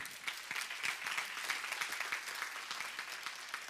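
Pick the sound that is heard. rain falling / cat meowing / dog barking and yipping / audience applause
audience applause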